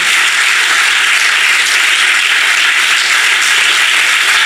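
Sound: applause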